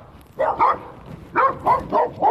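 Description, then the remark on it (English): A dog in a video barks in sharp, fairly loud bursts as it comes at a man: a quick pair, a short pause, then four more in a steady rhythm. No one speaks over it. “I, mean, I would have been like, oh fuck, the way this dog just came at him.”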